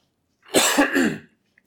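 A small cough of a few quick bursts run together into one short fit, lasting under a second, followed by quiet and a faint click.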